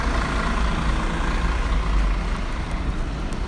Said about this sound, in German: Wie ihr hört, sind die ganzen Busse im Hintergrund zu hören. Und äh, genau. Muss ich ein bisschen lauter reden, jetzt wird es ein bisschen actionreifer.